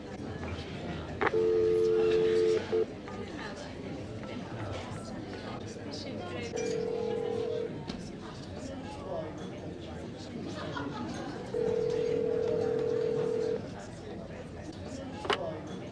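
A telephone ringing tone from a call placed in a bar sounds three times, steady low beeps a few seconds apart, heard clearly over a busy background of indistinct chatter and a faint clink near the end.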